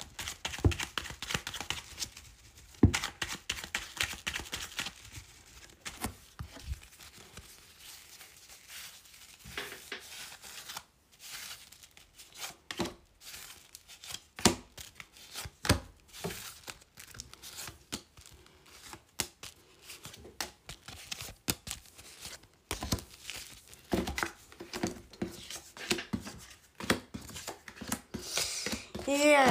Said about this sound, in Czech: A já už se dívám na vaše fotky, míchám u toho karty a my se spolu podíváme, co nám Tarot poví o vás dvou.